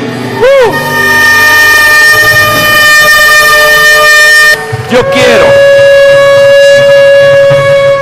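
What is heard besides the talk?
trumpet blast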